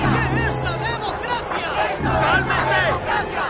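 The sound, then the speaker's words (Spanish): A crowd of protesters shouting together, some holding banners and others shaking their fists in the air: a dense, continuous roar of many overlapping voices with rising and falling yells, loud and steady throughout, no single voice standing out. “Varios manifestantes sostienen pancartas, otros agitan sus puños en alto.”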